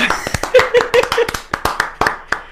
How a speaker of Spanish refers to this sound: ¡Un aplauso! ¡Uepa!